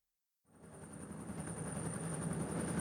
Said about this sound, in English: A National Guard helicopter is sent to collect it.